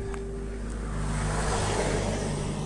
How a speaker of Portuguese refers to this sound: Eh, os carros que vêm atrás, é pá, nunca consigo adivinhar, não é? Uma coisa é ver o carro que está à minha frente e vou para o outro lado, que é para lhe dar espaço. é um sítio apertado onde estou a passar. E outra, tens um carro que vem atrás de ti